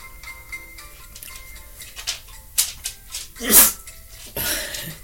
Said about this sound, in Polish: Przepraszam za pieska. Piesek jest tutaj ze mną, drapie i kicha.